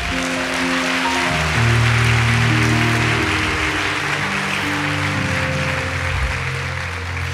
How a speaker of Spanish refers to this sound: Dele un aplauso fuerte a Dios por eso.